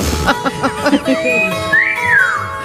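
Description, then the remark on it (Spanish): A Mexican parrot whistles a tune: a few short, chirpy vocal notes, then long, clear high-pitched whistles that rise and fall smoothly in a melody, fairly loud and with no talking. “Era un loro mexicano, ¿no recordáis este loro?”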